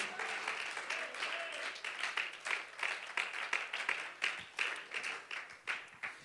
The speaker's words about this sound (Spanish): ¿Alguien puede brindarle un fuerte aplauso a la presencia de Dios?